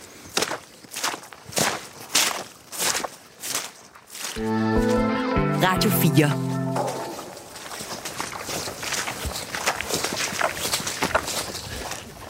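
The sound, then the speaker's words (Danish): Steady footsteps squelch through wet, marshy meadow at Kroning Enge during a field report, pausing briefly while a short musical station jingle with a voice plays, then resuming with softer trudging steps. “Og mens vi, øh, vi sjapper os videre, så kan jeg fortælle, at du lytter til Vildspor.”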